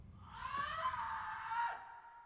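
A short, shrill scream at the end of a song holds for about a second and a half, loud and strained with a bright, piercing tone, then cuts off abruptly over a faint low backing.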